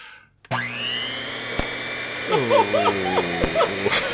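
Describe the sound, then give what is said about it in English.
A Thermomix kitchen blender motor whirs up to a loud, steady whine as it grinds a CD, with a few sharp cracks; voices talk over the motor in the second half. “So I've got my Thermomix sitting in the kitchen. I'm going to throw it in right.”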